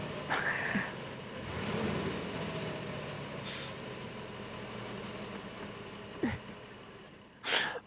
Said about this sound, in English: What I love about that is that's definitely like a bus or something.